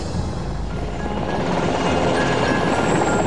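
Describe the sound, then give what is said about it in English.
Attack helicopters flying over southern Iraq, a steady, loud roar of rotors and engines with a rough, pulsing low rumble and a faint high whine throughout, with no one speaking. “More attack helicopters were arriving by the hour, and we saw and heard intense air activity over southern Iraq.”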